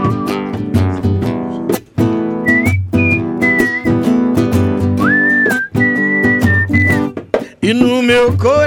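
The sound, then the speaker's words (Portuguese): A person whistles a lilting, high, sustained melody in short phrases over steady, loud instrumental backing, with bright sliding notes rising and holding between pauses. “com vocês o assovio mais charmoso do Brasil.”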